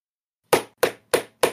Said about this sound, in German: ich klopf gerade mit meinem Kugelschreiber auf den Tisch